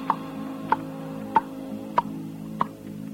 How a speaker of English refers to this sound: And the big clock up there in the steeple starts ticking off.